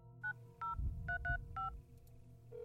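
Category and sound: signal or alarm, telephone keypad dialing tones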